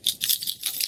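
An embroidered automotive keychain with a metal handle jingles in quick, bright metallic clusters, a continuous jangle of small clinks with no voices.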